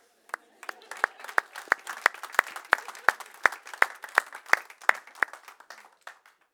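An audience applauds, with sharp, evenly spaced claps standing out in a steady rhythm over a dense patter of clapping, holding at moderate loudness before trailing off at the end.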